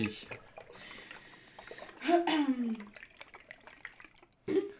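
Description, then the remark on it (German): Pale ale pours into a glass with a gurgling splash that swells for about a second, over quiet background chatter, followed by a brief louder sound at the end. “Mir musst du noch nicht einschenken.”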